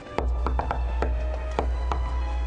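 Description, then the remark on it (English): Several sharp knocks on a door come in an uneven rhythm, moderately loud, over a steady low hum with no one talking. “And somebody's knocking.”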